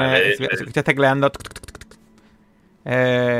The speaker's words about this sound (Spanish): ¿No te importa chequearme eh, si hay algún antecedente de Stuart Pillaski? Eh, Stuart Pillaski, un momento. El directivo... escuchas tecleando.